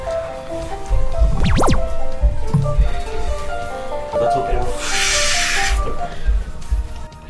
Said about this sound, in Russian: Что-то так шумит? Это вода, наверное.